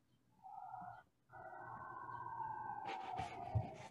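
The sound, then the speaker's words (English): A siren wails outside in downtown Toronto, a steady high tone that breaks off briefly and then returns, gliding slightly as traffic rumble and street noise swell around it. No one talks. “That siren is how I'm feeling.”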